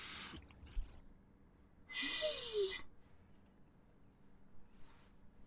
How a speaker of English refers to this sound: You think I'm kidding? But like, I can hear you breathing, my guy.